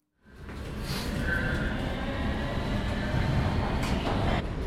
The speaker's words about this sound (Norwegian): Nå sitter vi på toget.